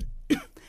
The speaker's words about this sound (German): Hast du gerade gehustet? Ich habe mich geräuspert, so ganz eklig, so als wäre da so ein kleiner Nikotinwürfel hinten an meinem Gaumenzäpfchen.